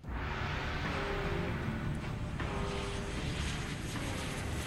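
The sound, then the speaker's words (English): A loud, steady airplane-like roar used as a dramatic sound effect, a dense rumble with a few faint sustained tones of dramatic music drifting through it and no talking. “I love the dramatic lighting, the dramatic music. The it's airplane like, sound.”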